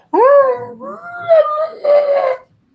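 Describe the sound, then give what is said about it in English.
Muffled screams of a woman locked in a small office closet come from behind the door in three drawn-out, wailing cries with sliding pitch, loud, with no other voices or sounds around them. “guys can hear muffled screams coming from the back of the door.”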